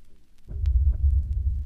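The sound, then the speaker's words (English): A deep, throbbing bass kicks in after a brief quiet moment and rumbles on heavily and loudly, with a steady pulsing low-end hum and faint higher clicks above it. “And listen to this fat bass that will send the blood coursing through your veins.”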